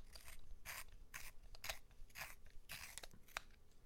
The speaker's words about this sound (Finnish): Terotin lyijykynän.